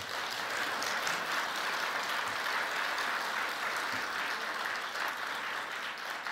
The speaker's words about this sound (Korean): 그럼 오늘 2부 예배넷을 성가대 찬양이 기가 막혔죠. 네, 다시 한번 뜨거운 격려의 박수.